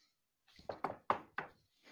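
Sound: knocking on wood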